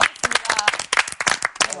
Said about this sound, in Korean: 수고해주신 우리 조교님께 박수 한번 드립니다.